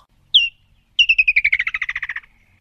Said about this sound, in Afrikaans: So klink die roep van die Bosveld visvanger. Elke jaar in November vlieg hy en sy maats terug na Kokanye Aftreeoort, maak nes en maak kinders groot.